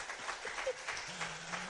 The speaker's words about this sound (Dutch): Een hartelijk applaus